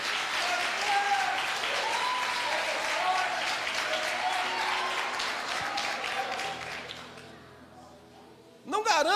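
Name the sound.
audience applauding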